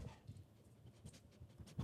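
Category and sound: animal, dog panting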